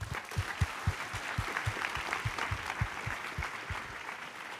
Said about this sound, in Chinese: 我们给耶稣一个掌声好不好？